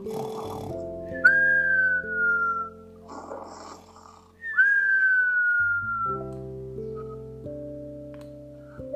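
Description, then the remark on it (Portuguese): The character Tio Gerúndio gives a cartoonish snore twice: each raspy, breathy inhale gives way to a high whistle that slides downward in pitch, over steady background music. “Tio Gerúndio, dá uma roncadinha aí.”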